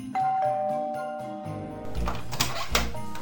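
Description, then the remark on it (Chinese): A doorbell at an upstairs residence, pressed by a group who have come up the stairs, rings with a short run of bright, tinkling chime tones, then gives way to a louder, busier burst of sound. No one speaks. “大家都上楼来了，按了门铃。”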